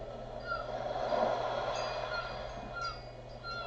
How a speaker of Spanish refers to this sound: fundiendo poco a poco con el sonido repetitivo del mar. Al fondo las gaviotas, los pájaros.